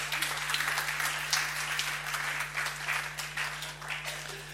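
Steady audience applause for a married couple called to the front, a dense wash of many hands clapping at a fairly even level for several seconds, with a low constant hum running underneath and no one speaking.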